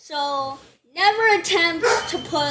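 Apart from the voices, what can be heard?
dog barking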